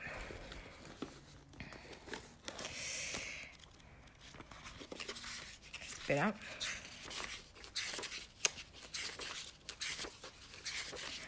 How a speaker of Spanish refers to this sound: no sé si tienes em, algún libro o alguna revista cerca. Sí. Vale, ábrelo por la página 14. Voy.